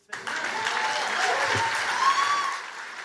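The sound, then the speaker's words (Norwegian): A full hall of people at the Values Voter Summit, the Christian right's annual conference in Washington, applauds Donald Trump steadily for about three seconds, a dense, even clatter of many hands that stays moderate rather than thunderous, with a faint whistle-like tone briefly rising over it. “Donald Trump får applaus, om ikke stormende men salen er i det minste full.”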